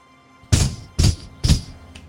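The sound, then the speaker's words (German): A voice imitates knocking on a heavy wooden door with the mouth: three loud, evenly spaced thumping knocks, followed by a faint fourth tap, with no talking. “Das klingt erstaunlich klopfig übrigens, was ja, du da mit deinem Mund machst.”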